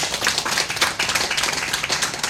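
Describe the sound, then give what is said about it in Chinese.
A crowd applauds steadily to thank the speaker's team, dense overlapping claps forming a continuous bright crackle that stays fairly even in loudness throughout, with no voices over it. “再一次的借由各位的掌声来谢谢我的团队，谢谢。”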